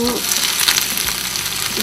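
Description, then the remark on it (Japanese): Garlic sizzles steadily in a hot pan as it is fried until golden, a continuous crackling hiss with scattered sharper pops, fairly loud and even throughout, with no voices over it. “まずは、えー、にんにくを入れますでにんにくをこんがり入れましょうでこ少しこんがりしてきましたね”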